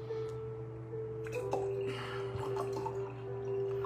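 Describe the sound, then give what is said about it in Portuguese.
Water trickles and splashes into a glass as a person pours themselves a drink, a short pour with a few drippy sloshes over a steady low electrical hum and no talking. “Deixa eu colocar água no copo para mim.”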